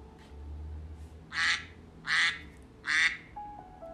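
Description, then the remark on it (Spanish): A duck gives three whistling calls in a steady, evenly spaced rhythm, each call loud and raspy-bright, with no talking and only a low background hum between them. “En eso se escuchó un silbido y descendió otra ave con cabeza blanca y negra.”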